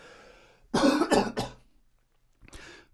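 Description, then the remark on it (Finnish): A loud burst of three quick coughs in a row, followed after a short pause by a softer throat-clearing cough, with no talking. “Yskästääpä vähän tässä välissä”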